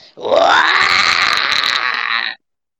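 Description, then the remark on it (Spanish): A person imitates the scream of the character Anne: one loud, strained cry that rises in pitch, then holds steady for about two seconds before cutting off abruptly, with no talking around it. “el maldito mismo grito de Anne.”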